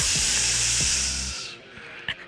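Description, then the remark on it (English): Food sizzles on a Traeger grill in a loud, steady hiss with a low hum underneath, lasting about a second and a half before cutting off, followed by a faint click. “Sound of something on your Traeger grill there”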